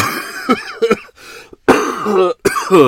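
A loud bout of coughing: several short, harsh coughs and throat-clearing bursts, followed by longer, raspy, spluttering coughs with brief pauses between them.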